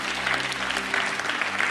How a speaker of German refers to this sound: Give the Lord a mighty hand. Einen Applaus.